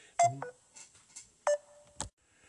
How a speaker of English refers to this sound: Okay, well, just for everybody out there, we kind of cut off there immediately, and I think you might have heard a beep there just a second ago.